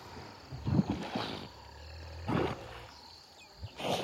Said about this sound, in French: Ce que vous écoutez, ce sont les ablutions d'une trentaine d'hippopotames, des femelles, accompagnées de leur jeune progéniture. Ils se prélassent dans l'eau. Chacun profite de ce repos sous la chaleur de plomb.